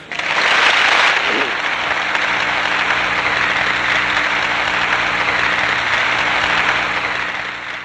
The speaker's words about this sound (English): He even let people try it out themselves. You got to do a hands on demo after the demo. Suffice to say, Engelbart got a standing ovation.